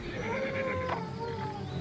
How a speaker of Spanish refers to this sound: Era el aullido de un lobo. Se escuchó muy lejos, pero los caballos se mostraron inquietos